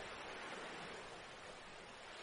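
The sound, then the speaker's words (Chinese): A soft, steady wash of ocean surf on a beach, a broad hiss of water that stays even throughout without distinct individual wave crashes. Quiet, with no voices. “呼气，沙滩上，海浪一下一下的拍打过来。”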